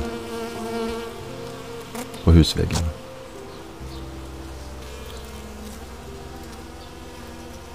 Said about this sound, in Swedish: Det surrar så mycket. Det är hundratals bin som jobbar på med att samla in nektar. Jag stannar till där ganska länge och bara lyssnar på när de små liven arbetar.